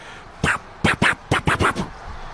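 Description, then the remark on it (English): A voice imitates the seed pods of a purple-flowered plant popping and throwing seeds: six short, sharp bursts in a quick, uneven series, fairly loud, with no other talking. “and so it was the the pods were popping and it was throwing seeds.”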